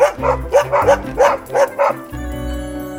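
A dog barks about five or six times in quick, loud succession over a steady low musical tone that continues alone after the barking stops.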